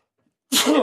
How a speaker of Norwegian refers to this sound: Sorry. Prosit! lurer på en liten forkjølelse, tror jeg.